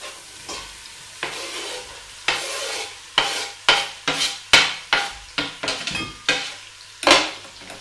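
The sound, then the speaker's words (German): Chopped onions sizzle and fry in a pot with a steady hiss, punctuated by a series of sharp scraping and stirring knocks of a utensil against the pot, fairly loud, no talking. “So, dann hauen wir doch gleich mal die ganzen klein geschnittenen Zwiebeln in den Topf und braten die an.”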